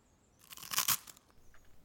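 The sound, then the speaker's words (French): A single loud, crunchy bite into gingerbread, a brief crackling burst of about half a second, then quiet with faint crumbly rustles afterward. No voices. “Le moi en croquer et je te laisserai l'autre pour avancer.”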